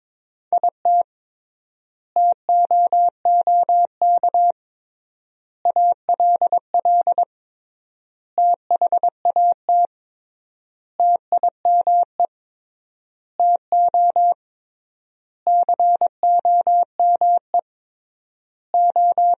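Steady single-pitch beeps chirp out in quick dots and dashes, grouped into bursts with clear pauses between them: Morse code sentences from the top 300 words, keyed at 22 words per minute with triple word spacing; no voices.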